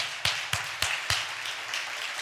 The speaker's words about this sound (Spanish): Ahora somos dirigidos por el pastor Cristo y eso merece un gran aplauso para el Señor.